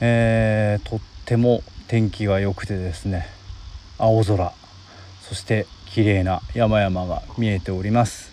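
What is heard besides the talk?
insects chirping outdoors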